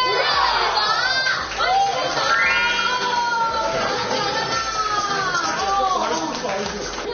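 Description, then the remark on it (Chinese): A loud crowd cheers and shouts continuously for about seven seconds at a press conference in Taipei, welcoming a singer, with many high, shrill voices rising and falling in overlapping whoops over a steady wash of noise. “用最热烈的鼓掌声欢迎我们的国际巨星耶！”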